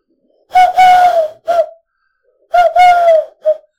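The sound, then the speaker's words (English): A person imitates a wood pigeon's cooing, voicing two clear phrases, each a long hooting coo followed by a short one, with a brief pause between them. “Or if if you're in a, like a particularly shy area of Scotland, you might get the fucking wood pigeon, right? Oh, the one that that, that nests the... in the chimney and gives it these.”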